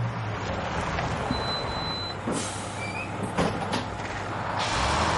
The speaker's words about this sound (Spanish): Un autobús se detiene ante una puerta de suministros del penal.